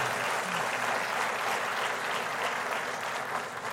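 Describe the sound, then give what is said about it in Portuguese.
Sustained applause from a large audience, given to Jesus, a dense, steady wash of many hands clapping at once, loud and even throughout with no voices standing out. “Dê para Jesus mais uma forte salva de palmas.”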